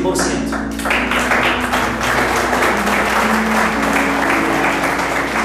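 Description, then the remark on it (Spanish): A crowd claps steadily for several seconds, a dense patter of many hands at moderate loudness with a low hum underneath and no clear voices on top. “No, pero ese aplauso está mediocre.”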